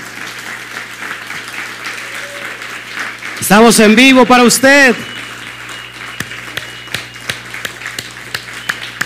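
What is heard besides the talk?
audience applauding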